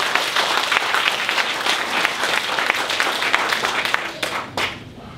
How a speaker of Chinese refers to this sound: 我要为今天每一位见证的感谢神，谢谢我们拍手鼓掌，谢谢各位。